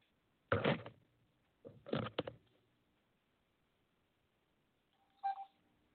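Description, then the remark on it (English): Electronic call-dialing tones from Skype: two bright, buzzy bursts in quick succession, a pause, then a shorter tonal blip, fairly loud and clear with no talking. “the connection on Skype, but let's give Lee a call right now.”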